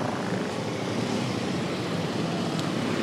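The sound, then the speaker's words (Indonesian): A steady, loud engine drone with rushing wind noise fills the whole stretch, from a motorcycle being ridden to the office on a fairly hot midday, with no talking. “sekarang kita menuju kantor lagi ya menuju kantor dengan menggunakan motor”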